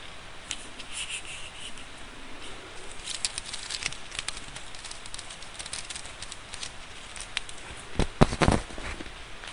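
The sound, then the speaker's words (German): Ordinary craft wire, also called rose wire, being unwound from a spool, a steady faint scratchy rustle with scattered ticks, then a few sharp metallic clicks near the end as a piece of the wire is cut off with pliers. “Ich wickel mal ein Stückchen ab.”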